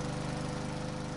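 lawn mower engine running

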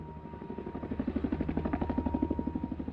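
helicopter flying overhead

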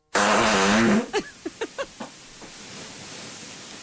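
fart

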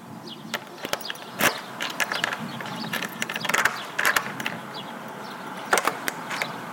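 key turning

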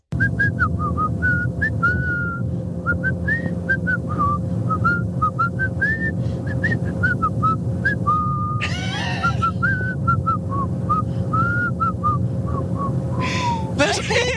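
person whistling a tune

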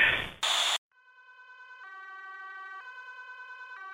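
ambulance siren

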